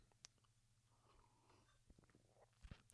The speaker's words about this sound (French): Petite gorgée d'eau, une petite gorgée d'eau passage.